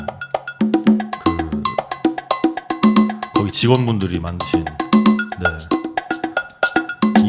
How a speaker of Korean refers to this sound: 브랜드사에서 나왔던 TR 727 특집으로 퍼커션 있는 그런 트랙을 좀 들어보도록 하겠습니다. 지금 나오는 지금 나온 노래는 그 TR 727 3에 이제 들어있는 팩토리 데모 트랙인데